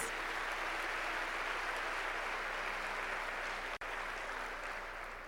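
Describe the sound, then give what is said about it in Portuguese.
A crowd claps loudly and continuously for Jesus at a preacher's call, a dense, steady roar of many hands for several seconds with no voices over it. “Você pode dar uma salva de palmas bem forte para Jesus?”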